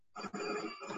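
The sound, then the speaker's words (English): A telephone rings in the background with a steady, buzzy electronic tone that briefly breaks once before ringing on, heard at moderate volume with no talking over it. “sorry about the phone in the background.”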